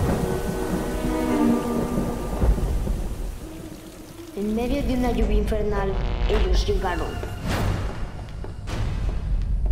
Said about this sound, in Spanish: fuera está lloviendo, no hay camiones.